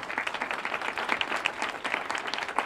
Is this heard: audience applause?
yes